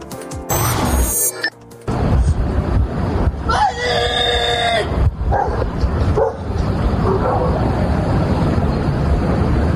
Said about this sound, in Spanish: después de este estremecedor momento, de este estremecedor grito en búsqueda de los desaparecidos, fue localizado el cuerpo de uno de ellos.